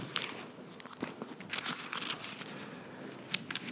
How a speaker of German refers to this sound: Und ich habe mir hier so einen Klebezettel gestern reingeklebt, damit ich schneller blättern kann.